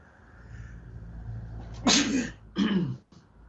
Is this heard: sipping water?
no